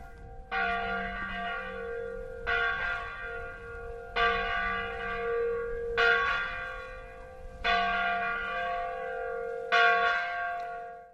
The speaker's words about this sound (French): 30 minutes avant la messe, le tintement de la cloche résonne dans tout le village pour appeler les catholiques locaux à l'église